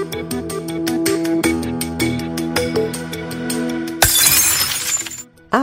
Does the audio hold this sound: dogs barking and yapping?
no